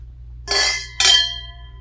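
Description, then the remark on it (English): Two wine glasses clink together twice in quick succession in a toast during a wine tasting, each bright strike leaving a clear ringing tone that slowly fades, alone over a faint low background hum. “Their glass is pretty full. I'm carefully swashing that. Mm-hmm. Look at them legs. All right. Cheers. Cheers. cheers.”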